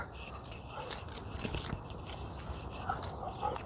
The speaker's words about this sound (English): Yep, that sound would be what my dog does when she gets excited.